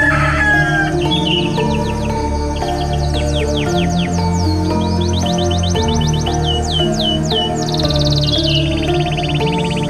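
A rooster crows loudly, its drawn-out harmonic call sounding over a busy backdrop of clucking chickens and chirping birds, with no talking.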